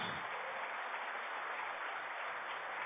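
A church audience applauds steadily, a dense wash of many hands clapping at once that holds at an even level throughout without letting up.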